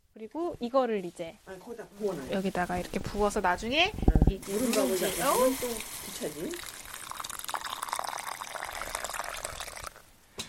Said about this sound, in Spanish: Antes de empezar a cenar, Trasladamos el arroz a un cuenco y vertemos agua caliente en la olla de piedra.